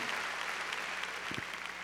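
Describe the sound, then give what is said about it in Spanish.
Steady, dense applause from an audience, many hands clapping at once in a continuous bright wash with no voices standing out over it. “A ver, démosle palmas fuertes.”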